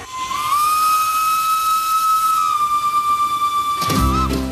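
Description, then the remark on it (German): A steam locomotive, No. 7, running slowly downhill on a mountain line with a view of the Alps, sounds its whistle in one long, steady, loud blast over constant hissing steam, then cuts off into a brief low rumble of the engine. No one speaks. “Jetzt geht es den Berg wieder herunter. Wenn die Lok Nummer 7 gemächlich auf der Strecke unterwegs ist, müssen alle anderen Züge etwas Rücksicht nehmen.”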